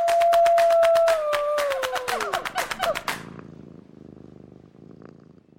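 A cat purrs in a steady rhythmic rumble, with a drawn-out vocal tone over it at first, then settles into a softer, quieter purr.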